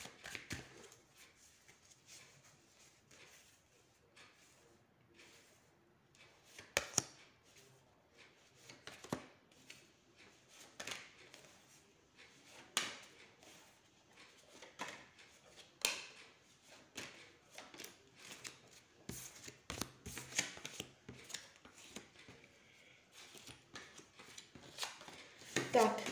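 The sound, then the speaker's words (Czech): Tarot cards being shuffled over and over, a steady stream of soft papery riffles and flicks with sharper snaps now and then, no voice throughout. “Teď beru do ruky tarot.”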